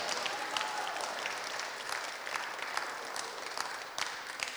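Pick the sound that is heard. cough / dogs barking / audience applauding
audience applauding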